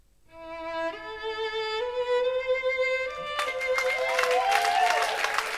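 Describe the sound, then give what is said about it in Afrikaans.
A few sustained, rising violin notes play, then a dense burst of many people clapping for the violinist breaks in and continues loudly to the end while a tone lingers underneath. “Hulle klap vir hom hande en hy maak 'n buiging.”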